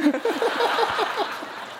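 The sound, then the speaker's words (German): A live audience claps steadily in a dense, crackling wash of applause, with bursts of laughter rippling through it for a couple of seconds. “Ich bin mir jetzt über diesen Applaus nicht ganz sicher, was da hast.”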